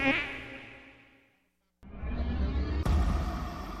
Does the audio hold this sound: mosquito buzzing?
yes